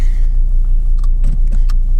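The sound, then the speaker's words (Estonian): A car engine hums steadily as the car slowly reverses out of a kindergarten gate on a frosty morning at minus one degree, with a low continuous rumble and a few brief clicks and rattles near the end, no one speaking. “täna oli see täiesti jäälilli täis ilma tagurdan siit lasteaia väravast välja.”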